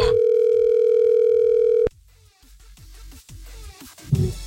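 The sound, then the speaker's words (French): A single steady telephone ringing tone, as heard by a caller waiting for an answer, sounds loudly for about two seconds and then cuts off, leaving quiet background with faint low rumbles. “donc, on y va, c'est parti. On appelle.”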